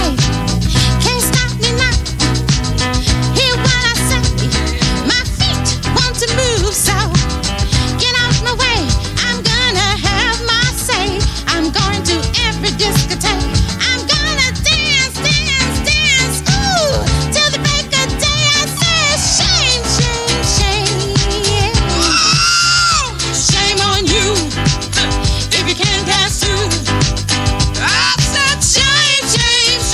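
An upbeat disco track plays loudly and steadily on the radio, with a driving four-on-the-floor beat, bright horns and layered vocals filling the full thirty seconds without any talk over it.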